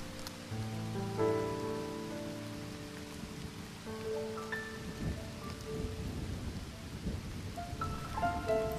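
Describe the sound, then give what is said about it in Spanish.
Heavy rain pours steadily over a graveside funeral as low thunder rumbles through and lightning flashes, with sustained tonal notes drifting over the storm. No one speaks. “no había notado que la gente ya empezaba a marcharse debido a la lluvia. Lanzó la flor al ataúd mientras un relámpago iluminaba todo el lugar, grabando en su mente ese instante”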